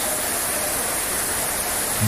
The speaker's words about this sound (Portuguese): Olha lá levando o cone, pega o cone, nossa senhora. A água até dos cones que estão lá para interromper o trânsito, tudo descendo, ó a, a enxurrada vem levando tudo.